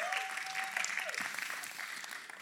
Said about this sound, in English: So if someone claps, all right, everyone has to clap. Are we, are we good on that? Here we go, all right?